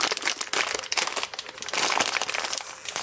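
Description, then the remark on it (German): Continuous crinkling and crackling of a plastic packet of A1 Instant Noodles Miga chicken-flavored soup being torn open, with rapid irregular rustles and a few sharper rips over about three seconds, no talking. “So, ich mache jetzt die Tüte auf.”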